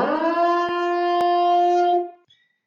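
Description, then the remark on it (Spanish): A loud, steady toxic hazard alarm siren blares on a single buzzy pitch for about two seconds, then cuts off abruptly. Two faint clicks break through midway, and no one speaks. “La alarma de los tóxicos.”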